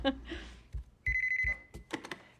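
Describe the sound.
A telephone bell rings in a short, rapid trill lasting about half a second, clear and fairly loud, with soft thuds and indistinct voices before and after it.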